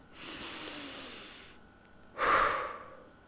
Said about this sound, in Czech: Zastavte se a nadechněte se. A tenhle jeden nádech, zní to úplně strašně divně, já vím, já se slyším, ale tenhle jeden nádech vám může dát takovej novej kikin a takový uklidnění se, že to byste nevěřili